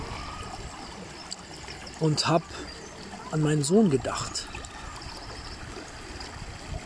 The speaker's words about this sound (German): doch ich lag hier draußen am Wasser, wie du hören kannst